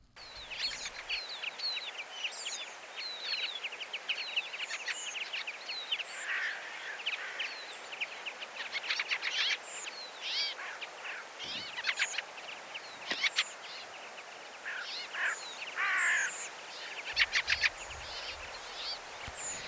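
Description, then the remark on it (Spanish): Many thin, high-pitched whistles and chirps from small birds repeat throughout, lively, over a steady outdoor background with scattered crackling calls and a crow calling behind; no one speaks. “eso no es lo que traemos, sino lo que se oye por delante, esa especie de chisporroteo, un El más agudo, ¿no? Ese más agudo, esos silbiditos, ¿eh?”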